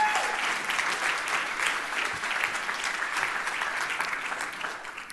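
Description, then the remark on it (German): Sustained applause from an audience in a church fills the space, a dense, even patter of many hands clapping at steady loudness throughout, with a roomy reverberant quality. “gebt ihr mal einen Applaus.”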